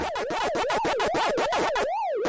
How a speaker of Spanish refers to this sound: Este sonido que está usted escuchando es del famoso juego Pac-Man, nacido en un día como hoy, pero de 1980.